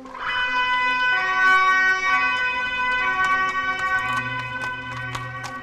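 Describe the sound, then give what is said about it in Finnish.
A loud siren wails steadily at the old Erottaja fire station, a red-brick building with a tall tower designed by Theodor Höijer. Its sustained tones hold over a low rumble of traffic, with brief clanks and knocks punctuating the sound throughout. “Kuten tuosta sireenin äänestä saattoi ehkä päätellä, niin olemme nyt Samu Nyströmin kanssa erottajan vanhalla paloasemalla.”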